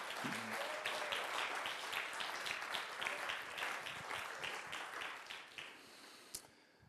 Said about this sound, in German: Applaus